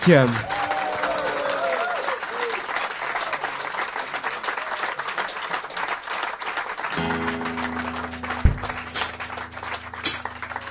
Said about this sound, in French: qui rejoint la scène du Blues Café sous les applaudissements endiablés du public.